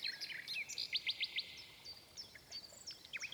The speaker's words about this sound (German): Mit dem größten Vergnügen, antwortete die Nachtigall und sang, dass es eine reine Lust war.